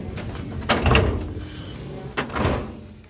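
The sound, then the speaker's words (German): A hanging-file drawer slides open and shut as files are put away in it, two rumbling metal glides about a second apart, each ending with a soft knock. “Die Akten wandern in Schubladen mit Hängeregister neben Fällen, wo keiner gleich ist wie der andere.”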